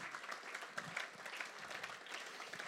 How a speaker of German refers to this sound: Für euch alle einen großen Applaus, ein herzliches Dankeschön.